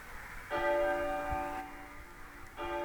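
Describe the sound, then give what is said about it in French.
Church bells ringing at noon: a rich, sustained metallic tone that slowly fades, followed by another strike near the end. No voices, just the resonant bell. “Alors oui, ça a sonné en moi, les cloches d'un midi qui ne finit jamais.”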